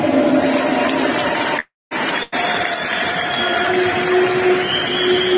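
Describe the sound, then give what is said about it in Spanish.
A crowd applauds in recognition of the work and struggle of women, a dense, steady wash of clapping that stays loud throughout, broken by two brief, abrupt cuts to silence partway through. “Yo creo que todas nos merecemos un aplauso y todos también nos merecemos.”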